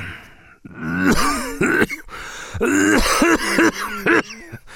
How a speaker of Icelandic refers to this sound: Hér komu hóstar og fleiri hóstar.